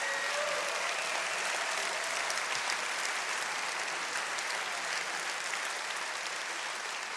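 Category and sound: crowd, audience applause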